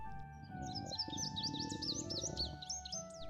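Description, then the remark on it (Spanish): Small birds chirp and twitter continuously in a quick, busy chorus of high, rapid notes, carried over a steady low background hum with a faint tonal drone. “Todo empezó aquella tarde de invierno pajaritos cantaban, la nieve caía y mi estómago rugía.”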